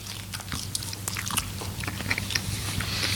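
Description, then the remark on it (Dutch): Close-up chewing of fresh linden leaves right at the microphone, with wet, crisp crunches and lip smacks repeating irregularly over a low steady hum, no talking. “Een live verslag, even flink in de microfoon smakken.”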